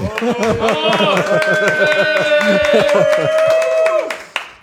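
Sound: clapping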